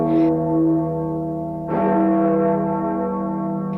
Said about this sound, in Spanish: Se escucha el tintineo de las campanas de la vieja torre de San Juan que interrumpe el silencio de los pastuzos que aún duermen.